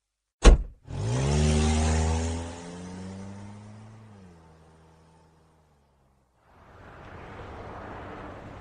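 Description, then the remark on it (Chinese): A sharp knock, then a car engine revs up to a loud, strained whine that holds, dips lower and fades out as the car is driven at top speed along a road in the early hours of the morning; after a brief silence, a steady rushing hiss of road noise follows. “一直保持着最大的车速行驶着。”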